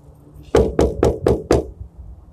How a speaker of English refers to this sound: So once you've closed the door on something and decided that this door needs to be closed, and you hear that knock